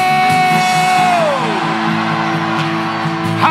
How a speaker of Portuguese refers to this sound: Todos podem dar um grito de júbilo!